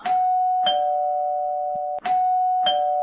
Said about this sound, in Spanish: Mira, continuará, no sé si continuará, pero lo que continúa es el, el timbre que no hace nada más que sonar.